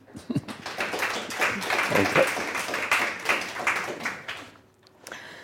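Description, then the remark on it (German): An audience claps steadily to welcome the host's evening guest, a dense crackling wash of many hands that swells and then fades out. A voice briefly says thanks and laughs over the clapping. “Ich bitte um einen herzlichen Applaus für meinen Gast.”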